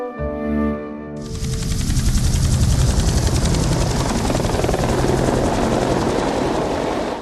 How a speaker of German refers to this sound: Mit dem Hubschrauber.